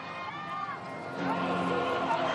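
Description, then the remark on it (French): A dense crowd along the route to the Vélodrome murmurs and calls out as the pope passes in his popemobile, a steady wash of many voices that swells slightly louder partway through, with scattered shouts rising above the din. “Sur la route du Vélodrome, la foule est venue voir François dans sa papa mobile.”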